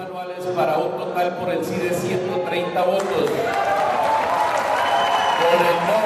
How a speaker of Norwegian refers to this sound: Jubel da nasjonalforsamlingen i Colombia godkjente den nye avtalen med FARC-geriljaen.